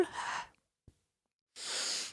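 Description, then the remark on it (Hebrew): A strong, breathy rush of air is forcefully pushed out through the mouth as a final full exhalation in a breathing exercise, followed by a short silence with a faint click, then another long forceful breath. No one speaks. “ופעם אחרונה, מוציאות את הכל”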